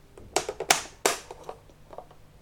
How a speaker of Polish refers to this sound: na środku, na dole klapka na duże baterie, która brzmi następująco.